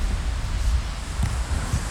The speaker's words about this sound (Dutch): Droog, half bewolkt. Weinig wind, gelukkig. Hoewel het met de microfoon altijd wat te horen is.